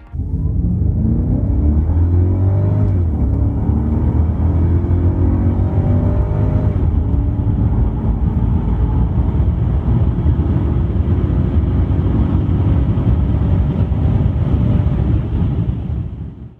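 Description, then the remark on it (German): The V8 engine of a Mercedes 500E car accelerates hard, its deep rumbling roar climbing steadily in pitch over several seconds, loud, with a brief shift partway through and no talking. “Hören wir uns kurz mal an, wie das klang wenn er leergeschlürft wurde.”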